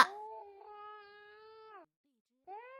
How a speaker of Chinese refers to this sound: 好了好了。妈妈在啊，不哭，乖宝宝不哭啊。